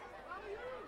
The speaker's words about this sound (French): C'est le bruit du parc qui le ramène à la réalité.